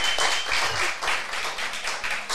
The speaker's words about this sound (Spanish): Ah, falta el aplauso, falta el aplauso. Un aplauso, un aplauso. Eh, lo merecemos.